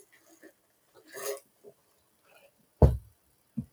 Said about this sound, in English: Sorry, I, I got distracted because uh, there's coffee over here, and I really want a sip of coffee, but it, it has ice, and it's not great for audio.